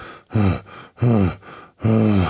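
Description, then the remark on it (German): Three deep, heavy breaths pushed into a microphone, each a long voiced exhale with a breathy rasp, separated by short pauses and quieter inhales. No speech. “tief schnaufe, tief und Leidenschaft.”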